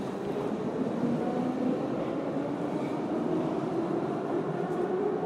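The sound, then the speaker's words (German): A steady, loud rumble of a subway train running underground at a U-Bahn station, with a droning mechanical hum and continuous rolling noise that never lets up. No voices are heard. “Tobias schließt das Auto ab und geht dann zur U-Bahn-Station.”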